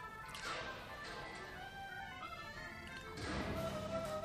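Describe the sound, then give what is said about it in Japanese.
Two sharp, heavy bangs of a cage door slamming shut, a few seconds apart, loud over steady background music; a sound effect in a Pinocchio story as the puppet master locks Pinocchio in a cage. “これ牢屋に閉じ込めました、バタンバタンみたいな音も入れてるんですかそうですあの、SE も全部お話し合わせて”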